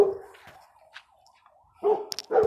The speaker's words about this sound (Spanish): Perdón si está, si está escuchando un perro, pero mi perro es bien castroso. Y no entiendo cómo se escucha hasta acá.